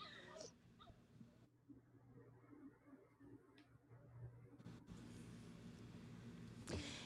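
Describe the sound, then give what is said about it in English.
Faint, high whimpering from dogs somewhere in the background, a few brief whines scattered over a low steady hum, with a sharper rising whine near the end. “I'm so sorry about the dogs, guys. Uh. They they have not got to have their long run today.”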